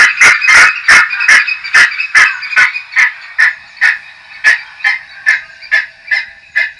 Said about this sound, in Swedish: Och det är alltså så här den låter, förstår vi? Ja, och nu var det faktiskt en... Det här var ett varningsläte för trutar.